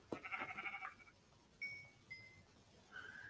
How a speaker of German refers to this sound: Oh, ein Schaf.